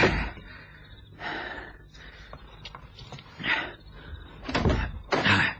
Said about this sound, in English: let knock on the door, in case there's anybody in.